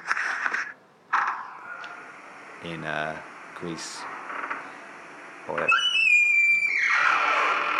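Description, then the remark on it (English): A door in a small apartment in Hydra, squeaked back and forth, squeaks with creaky, wavering high-pitched whines, a couple of short groans and then a longer drawn-out squeal, while a man talks briefly over parts of it. “here's a bunch of door squeaks I recorded in”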